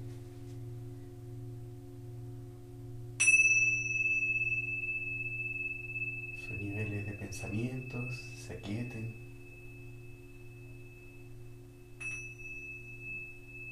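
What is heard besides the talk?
singing bowl tones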